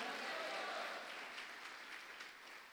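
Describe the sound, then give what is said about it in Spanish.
A church audience claps in praise of the King of Glory, Jesus, in a dense, continuous wash of many hands, steady and fairly loud, with no single beat standing out and a slight fade toward the end. “Dele palmas al Rey de la Gloria.”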